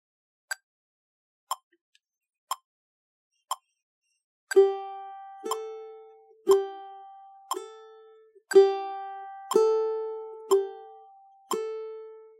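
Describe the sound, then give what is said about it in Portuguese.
A metronome ticks steadily on its own four times, then each click is joined by a plucked open-string note, alternating between the fourth string (G) and the first string (A), starting with the fourth, each ringing briefly and fading before the next beat. “E a cada vez que ele tocar um som, eu vou tocar uma dessas duas notas, começando pela quarta.”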